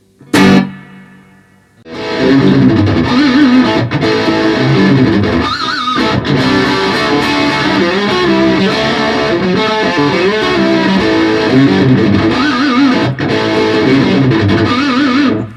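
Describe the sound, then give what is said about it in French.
An electric guitar plays a driven, slightly overdriven passage through a tube amp with reverb, after a brief sharp strum and pause; steady, loud, with no voices. “voilà j'ai mis un peu de reverb.”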